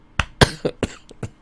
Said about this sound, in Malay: Orang tegur je dia nak batuk. Tegur batuk.